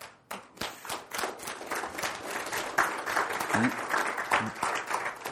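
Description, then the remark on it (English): An audience at Riverton First Baptist Church breaks into steady applause for those working in the sound booth, many hands clapping in a dense, crackling wash that holds at a fairly loud level for several seconds, with a few voices faintly mixed in. “And if you would just for a minute, uh, give them a hand clap.”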